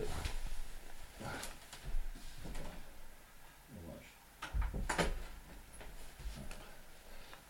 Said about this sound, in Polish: przepraszam, się drzwi otworzyły.